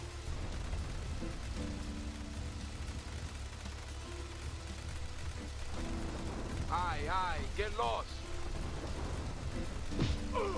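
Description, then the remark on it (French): Heavy rain pours down in a dense, steady hiss that fills the whole scene, with brief voices rising over it partway through. “Là, on dirait vraiment qu'il pleut des cordes.”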